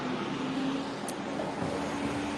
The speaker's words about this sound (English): There's a fire engine going by. Um, like I said, I'm walking down Polk.